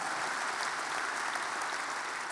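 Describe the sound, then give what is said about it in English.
A church audience at Fellowship Church on Labor Day weekend applauds steadily, a dense, even wash of many hands clapping at a constant level with no pauses and no voices breaking through. “Give yourself a round of applause right now for showing up today. Just, just clap.”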